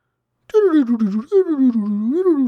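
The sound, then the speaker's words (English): A single voice hums a wavering, warbling tone that dips and rises in pitch for about two seconds, imitating a time machine whirring to life. It is fairly loud, with no words. “That's my time machine noise. We're going back in time.”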